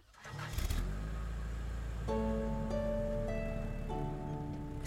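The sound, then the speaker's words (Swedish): A car engine turns over and catches, then settles into a steady hum that rises in pitch as the car, driven by a mother, pulls away and drives at a moderate speed through a forest in the evening, fairly loud with no talking. “Bilen brummade iväg genom sagoskogen.”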